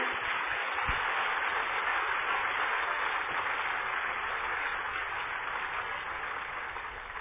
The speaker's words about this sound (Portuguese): Aplauda ele bem forte, porque isso é verdade.